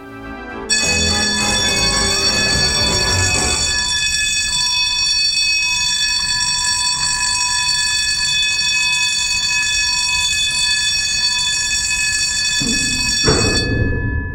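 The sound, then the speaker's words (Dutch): The massive doors of an old aircraft shelter at Soesterberg air base in the Netherlands, where F-15s were once sheltered, grinding open: a loud, steady electronic warning tone rings nonstop over a deep mechanical rumble, cutting off with a clunk near the end. No voices. “En als die kolossale shelterdeuren opengaan, dan klinkt dat zo.”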